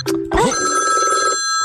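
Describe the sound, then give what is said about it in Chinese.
A telephone rings with a bright, steady electronic trill held for about a second, preceded by a brief burst of voice and a low thump, then cutting off abruptly. “哎，谁打电话？”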